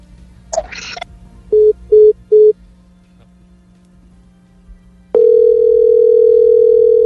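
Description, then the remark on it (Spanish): A click and brief noise, then three short evenly spaced tones, followed after a pause by a loud, steady continuous telephone tone that holds to the end, as a dropped phone call is being reconnected. No one speaks. “reconectando. Aló. Sí. Fiscal. Se cae la llamada y no escucho nada, de verdad.”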